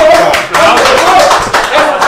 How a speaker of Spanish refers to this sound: Ahora sí, ahora aplauso.